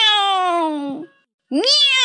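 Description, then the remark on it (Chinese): A person imitates cats meowing with two loud, strongly tonal meows: a long one that slides downward in pitch, a short silence, then a second that swoops upward. “好，兄弟们，鼓起勇气过桥吧。喵，喵”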